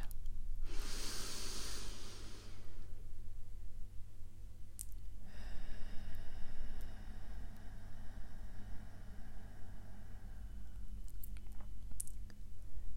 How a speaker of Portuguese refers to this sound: Continue respirando e preste atenção no ar que entra pelo nariz, no caminho que ele faz pelo seu corpo, até que ele saia pela boca. E continue a respirar.